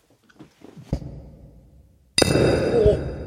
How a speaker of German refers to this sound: Oh, oh, das tat aber schon ein bisschen in die Ohren weh, ne? Ja, wir haben, also ich habe auch das Einschenkmikrofon gerade ein bisschen gegen das Glas geschlagen.